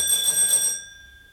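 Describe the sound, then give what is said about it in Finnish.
A doorbell rings in one short, rattling electric burst lasting under a second, then cuts off and fades into quiet. No one speaks. “No yritetään vielä.”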